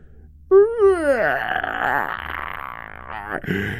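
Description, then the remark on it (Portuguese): A manticore, struck by hunters' arrows in the neck and chest, howls in pain as it staggers backward: one long, loud, strained cry that rises sharply, wavers, then sinks into a rough, groaning growl. A brief harsher snarl follows at the end. “A primeira atingiu o manticore no pescoço, outra acertou-lhe o peito o manticore cambaleava para trás, uivando.”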